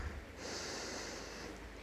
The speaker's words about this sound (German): Atmen ist Leben. Wenn wir Angst haben, atmen wir meistens ganz flach. Tief einatmen durch die Nase